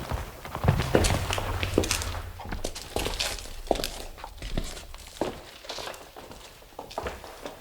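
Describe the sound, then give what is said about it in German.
Footsteps walk along at a steady pace, heading down one floor, each step a soft knock with occasional light clinks, while a faint low hum sits underneath at the start. “Kommt, wir gehen noch ein Stockwerk tiefer. Hier geht's runter.”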